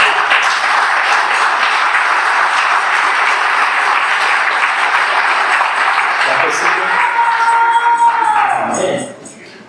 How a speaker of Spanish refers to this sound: amén dale gracias pues a Dios que está sentado allí. Dale un aplauso al Señor.